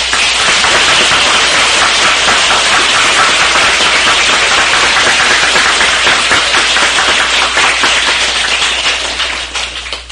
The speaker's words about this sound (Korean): 예, 두 분이 앞으로 나와서 인사. 박수로서 환영합니다.